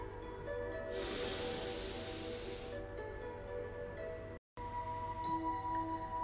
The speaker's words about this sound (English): Breathing in the future. Now breathe out the past.